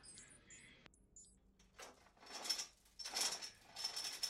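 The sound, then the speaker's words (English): A digital lock keeping a person on a gurney disengages: faint high electronic chirps, then several bursts of mechanical whirring and ratcheting clicks, fairly quiet, with no voices. “I can turn off the digital lock keeping you on the gurney.”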